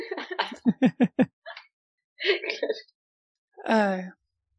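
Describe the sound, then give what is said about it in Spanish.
A person vocally imitates a hen clucking: a quick run of five or six short, staccato clucks, then a pause, a scratchy burst, and one drawn-out, rising squawk at the end, all clear. “Cacarea.”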